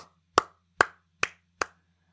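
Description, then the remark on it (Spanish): Four sharp, evenly spaced hand claps in a steady rhythm, each crisp and fairly loud, with quiet gaps between them and no talking. “Aplauso por los sueños cumplidos.”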